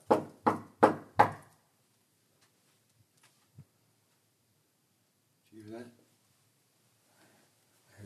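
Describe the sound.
Four loud, evenly spaced knocks on a door in quick succession, followed by a long quiet stretch with a few faint thuds and a brief, faint, muffled voice.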